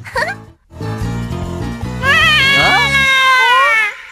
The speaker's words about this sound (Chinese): 好像是美洲虎宝宝的声音哎， 听起来他好像需要人帮忙哎。